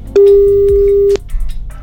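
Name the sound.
telephone ringback tone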